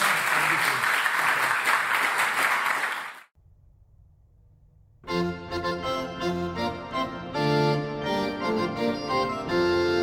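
A crowd claps loudly in a dense, steady burst for about three seconds at the end of a lecture, then stops abruptly. After a brief near-silent pause, music begins and continues to the end.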